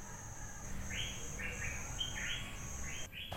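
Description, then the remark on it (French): Several bright bird chirps repeat in a loose rhythm over a steady hum of outdoor ambience at a guesthouse with a pool in the late afternoon, with a faint insect-like drone running underneath; no one speaks. “Et c'est ainsi que cette fin d'après-midi, dans une sorte de pension un peu tristoune, avec piscine et chant d'oiseaux quand même, on s'est retrouvé côte à côte, face au micro, un peu avant l'heure du pastis.”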